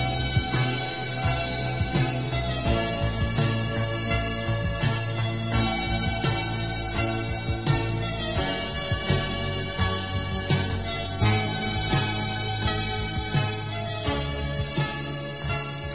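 Steady instrumental electronic music plays throughout, with sustained synth tones, a low droning bass and bright chiming accents repeating at an even pace, moderately loud and with no voices.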